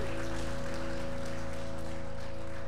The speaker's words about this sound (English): Let's rejoice with hand claps of praise. He is worthy.